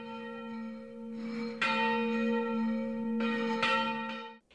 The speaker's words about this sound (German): Täglich ließ sie abends um die neunte Stunde die Turmglocke läuten.